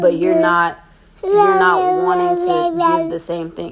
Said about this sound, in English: Excuse my baby. She wants she wants to be part of the podcast.